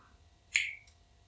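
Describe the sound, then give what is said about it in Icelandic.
A small pebble strikes a window pane with a single sharp, bright tap, followed by a much fainter second click, over quiet low background hum. “Smásteinar á glugga”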